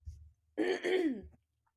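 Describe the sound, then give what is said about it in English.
A single throat clear, a rough, voiced rasp lasting about half a second, preceded by a faint low rumble and followed by quiet. “Sorry if I keep clearing my throat.”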